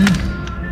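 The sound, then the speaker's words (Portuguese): The very heavy door of an armored car shuts with a deep, solid thud, followed by a softer knock as it settles with suction, then a low hum fills the quiet afterward. “Opa, não a sucção na porta. Óbvio, o que seria de uma maiva, sem sucção. Muito pesada a porta.”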